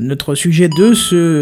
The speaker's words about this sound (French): Ah, j'ai oublié de mettre en silencieux, je suis parfaitement désolé, je m'en veux à mort. Voilà. Ça, euh, faisait un peu euh, Tetris ou... Euh... C'est le son des pièces de Mario, c'est ce que j'ai mis en, quand je reçois un mail.